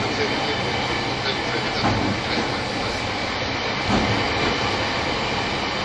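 Steady, full-bodied rumble of an E231 series Shonan-Shinjuku Line special rapid train bound for Odawara, running between Omiya and Ofuna, heard from on board, with a constant roar of wheels on rail and a few soft, irregular clacks over track joints.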